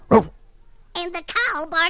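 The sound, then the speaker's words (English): A person imitates a dog barking: a short, sharp woof, a brief pause, then a few quick voiced barks with rising and falling pitch. “like a dog.”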